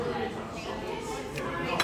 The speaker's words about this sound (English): I've just put my coffee down.